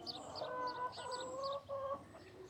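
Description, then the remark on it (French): Several hens cluck and murmur together in a steady, overlapping chorus, moderately loud, with a brief dip in the noise partway through and no talking. “Ma grand-mère aimait seulement les poules.”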